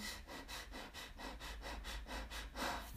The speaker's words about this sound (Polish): taki, taki dziwny, bardzo szybki i niechlujny oddech.